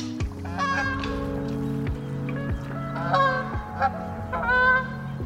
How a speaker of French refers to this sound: On vient de voir s'envoler les bernages du Canada. Hein. C'est une espèce d'oie euh, qui était absente euh, de, Belgique il y a quelques dizaines d'années.